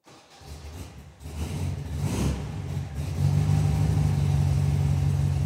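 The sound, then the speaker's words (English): The engine of a small vintage vanilla-and-mint Beetle car idles with a low, steady rumble, then revs up and settles into a louder, throaty drone, with no voices. “including one vanilla and mint beetle he drives around sometimes”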